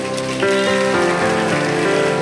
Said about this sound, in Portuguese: Será que tem um povo aqui do Glória a Deus? Você pode aplaudir Jesus aqui essa noite?